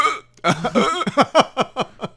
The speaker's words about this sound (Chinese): 哦，我懂了，我猜了哈，因为我还不知道是不是因为他觉得台湾的美食太好吃了，吃完以后呢就要打那个饱嗝，是不是这样？